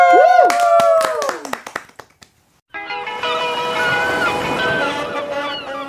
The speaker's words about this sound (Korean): 같이 한번 박수로 한번 들어볼까요?